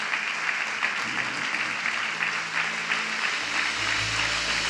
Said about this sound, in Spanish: En el nombre de Jesús todos los que están agradecidos con el Señor, démosle una ofrenda de palmas.